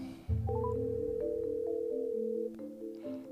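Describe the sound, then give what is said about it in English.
An outgoing phone call ringing on the line, a steady electronic tone held for about two seconds before shifting slightly, clear and fairly loud with no voices. “So let's make our phone call. Hopefully somebody will answer.”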